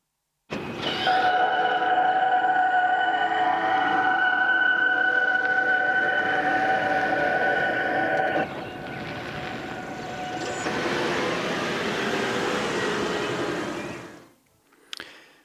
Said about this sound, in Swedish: Toyotas hybridbilar kan låta så här när de backar och sen kör iväg.